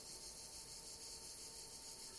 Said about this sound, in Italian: Ecco, intanto sono arrivate le cicale.